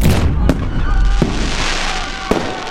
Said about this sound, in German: Die Statue explodiert und was zum Vorschein kommt, ist Brokkoli.